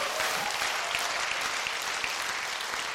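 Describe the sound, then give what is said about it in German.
A crowd claps steadily, many hands overlapping into a dense, continuous wash of applause that fills the whole moment with no voices standing out. “Mach irgendwas, preis den Herrn, klatsch in die Hände.”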